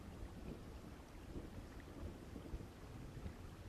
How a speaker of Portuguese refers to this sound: Mas agora não dá para ir com essa chuva.